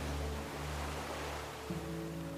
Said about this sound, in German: Konzentrieren wir uns auf das Rauschen der Wellen.